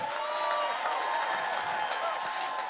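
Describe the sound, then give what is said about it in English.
A crowd claps and cheers steadily throughout, a dense, sustained wash of applause and voices at a fairly loud, even level. “Jesus, a big clap in the house right here.”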